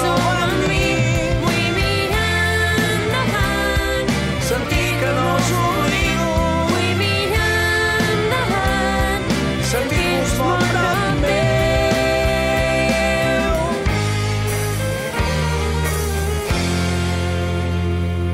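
A full-band rock song plays loud and steady throughout, with driving drums, bass and bright guitars filling the mix, and no talking over it.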